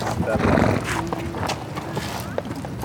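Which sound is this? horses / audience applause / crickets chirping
horses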